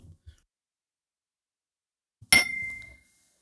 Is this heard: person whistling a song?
no